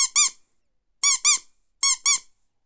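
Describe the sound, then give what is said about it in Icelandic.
A rubber bath duck squeaks three times, each a quick pair of high, wheezy honks with a brief silence between them. No voices. “Nei, nei, nei, nei, nei, ekki, ekki svona endur, ég er e, ekki að tala um endur sem að tegur með sér í bað heldur alvöru endur, lifandi, reynum aftur.”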